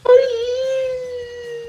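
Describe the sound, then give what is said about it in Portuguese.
A voice imitates a character crying with one long, steady, high-pitched wail, loud, held for under two seconds with no talking around it. “essa aqui é a minha imitação de, de, de choro de um, de um personagem do Chaves”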